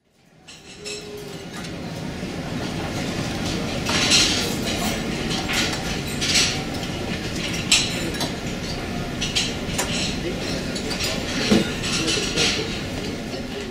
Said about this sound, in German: Wie man schon hört, das Sido ist ein Buffet-Restaurant.